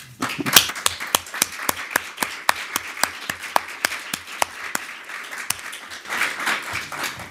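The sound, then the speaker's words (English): A conference audience applauds to thank three panelists after a panel, steadily for several seconds, a dense patter of many hands with a few sharp, evenly spaced claps standing out, tapering slightly toward the end. No one speaks. “So maybe I'm asking you to join me to thank warmly our three panelists.”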